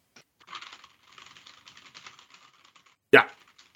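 A rapid patter of soft keyboard clicks runs for a couple of seconds, then ends with one sharp, louder key strike after a short pause, made on request as a demonstration of keyboard noises. No one speaks.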